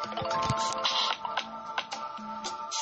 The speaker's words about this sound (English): Oh my goodness, I'm so sorry. My phone started ringing. Why didn't I have it on silent, right?